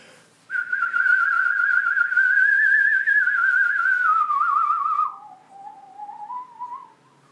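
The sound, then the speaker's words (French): A musical saw plays the famous theme from the 1975 Milos Forman film One Flew Over the Cuckoo's Nest, a slow, eerie melody: one long, wavering high note with heavy vibrato sliding gradually downward, then a softer, lower phrase after a brief break, with no voices. “c'est la, la scie musicale, euh, le fameux thème du film, très organique aussi, très viscéral, qui rappelle un petit peu les chants euh, de Native American, des Indiens d'Amérique.”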